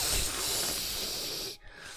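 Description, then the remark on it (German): A voice imitates a long, steady hissing sound, breathy, lasting about a second and a half before cutting off abruptly into near silence. “aber sie steht so ein bisschen neben dir und du hörst ein Zischen aus ihrer Richtung, ein Kss”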